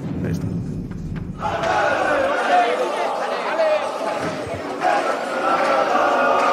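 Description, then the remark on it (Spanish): FC Barcelona fans chant and cheer together outdoors as the Barça players board the team bus, a dense wash of many voices that swells after a brief quieter start with a few low thumps, continuing loudly throughout. “Ahí suben los jugadores, el estado del Barça, aficionados que les cantan, fijaos, eh.”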